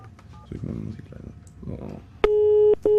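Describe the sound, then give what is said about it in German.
Faint dialing tones and low murmuring give way to a loud telephone busy signal: a steady, mid-pitched buzzing tone that cuts off briefly and then starts again. The call is being placed to the Villa. “So, dann wollen wir mal die Villa anrufen, so.”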